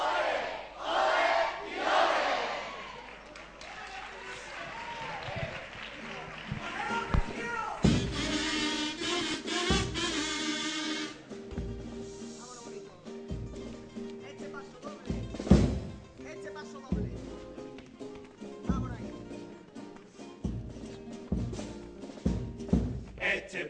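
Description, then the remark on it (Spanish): A carnival group sings its second pasodoble together in loud, full voices, backed by regular drum hits and strummed accompaniment, the chorus swelling and holding long notes. “Bueno, vamos a escuchar el segundo paso doble.”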